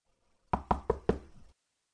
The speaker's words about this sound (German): Es klopfte abermals